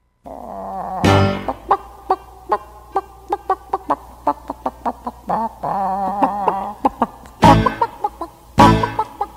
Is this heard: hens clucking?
yes